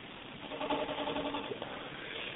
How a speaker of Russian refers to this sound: Ну, а холодильник затих, отлично.